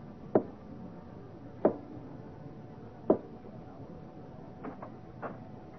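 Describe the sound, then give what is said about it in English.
Three soft, evenly spaced taps on Sir Henry's wooden bedroom door, a prearranged signal at about two in the morning, each a short dull knock with pauses between, then a couple of fainter sounds; no voices. “I went to Sir Henry's room and tapped softly our prearranged signal.”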